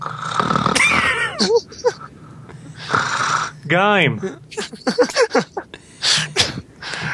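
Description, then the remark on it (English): A person imitates snoring with loud, exaggerated snorts and breathy rasps, broken up by a wavering vocal groan and a few choppy bursts of talking. “It sounded like superhero time. Fun and the snoring.”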